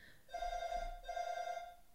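A doorbell rings in two loud bursts with a shrill, buzzing, telephone-like tone, the second burst following right after the first with no voices.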